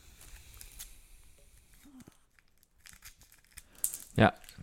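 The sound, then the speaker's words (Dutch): Crinkly packaging around a beer bottle rustles and crackles in short bursts as the bottle is unwrapped, ending in a sharp, loud tear, with a quiet voice murmuring in the background. “Nou, ik ga hem nu uh, openmaken.”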